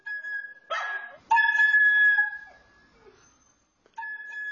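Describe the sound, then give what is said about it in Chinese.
A dog barks in a few high, yelping bursts, one stretched into a longer whining cry, with short pauses between and no talking, while playing with a child. “与狗狗玩耍是他最快乐的时光。”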